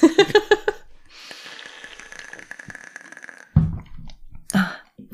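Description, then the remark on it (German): Someone drinks water from a bottle: a quick run of rhythmic gulps, then a long airy hiss as the bottle refills with air, ending with a couple of soft thuds. No talking. “es tut mir leid, dieses Geräusch, ich muss jetzt mal von meiner Flasche was trinken, das gibt immer so lustige Geräusche.”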